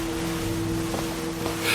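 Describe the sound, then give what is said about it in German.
Continuous rushing water of the Pacific washes around a moving boat, its stern waves crossing the ocean waves, a low engine drone running steadily underneath, with a couple of soft splashes and a brief louder surge at the end. “sah einen Moment lang auf die Heckwellen, die sich mit den Wellen aus dem Pazifik kreuzten.”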